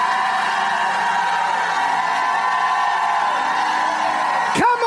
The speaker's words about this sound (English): If you believe it, shout like you never shouted in your life.